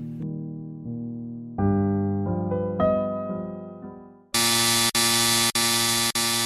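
A loud, harsh alarm siren in a house blares in repeated buzzing blasts, about four in quick succession, after a run of sustained melodic tones, while flashing lights start blinking. The alarm is deafening, with no voices.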